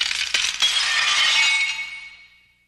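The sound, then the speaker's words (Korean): Three people clink their iced coffee cups together in a toast, two quick bright taps followed by a shimmering rattle that fades away over about two seconds, with no voices. “저희가 지금 커피, 아이스 커피가 하나씩 있는데, 자, 들어. 들고. 자, 건배하면서 화이팅을 할게요.”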